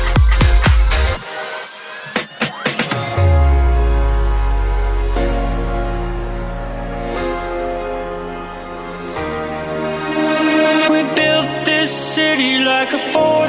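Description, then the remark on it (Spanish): A Spanish-made dance track plays on the radio at full volume, with a deep, sustained bassline under bright layered synth chords and sharp percussive hits near the start. No voices are heard. “Nos ha encantado y suena así de bien.”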